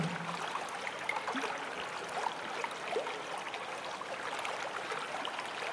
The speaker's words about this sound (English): Imagine that you are standing by the bank of a gently flowing stream, watching the water flow by. Imagine feeling the ground beneath you and the sound of the water flowing past you.